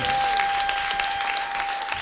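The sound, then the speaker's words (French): Steady audience applause welcoming a guest fills the whole clip, a dense wash of many hands clapping at an even, loud level, with a thin high tone running faintly underneath. “Veuillez applaudir, s'il vous plaît,”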